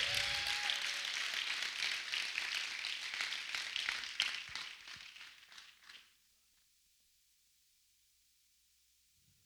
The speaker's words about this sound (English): Somebody give the Lord a clap and a shout in this place. Come on, give the Lord a big, big, big, big, big clap.